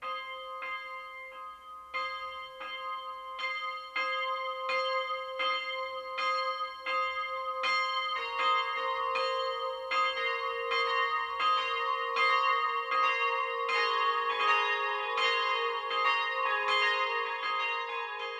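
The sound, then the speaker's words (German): The church bells of the Stiftsbasilika in Aschaffenburg ring the 12 o'clock noon peal, a steady stream of overlapping metallic strokes that thickens into a fuller, richer clangour as more bells join partway through. No one speaks. “Das Mittagsläuten kommt heute aus Aschaffenburg.”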